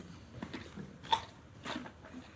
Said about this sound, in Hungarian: Mit csinálok, ha répa recsegéstől nem hallom?